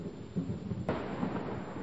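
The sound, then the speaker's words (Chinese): A low, continuous rumble of thunder rolls on, with a brief sharp crack partway through, steady and fairly quiet throughout, with no voices. “江水在风的吹拂下拍打着江岸，雷声不断的响。”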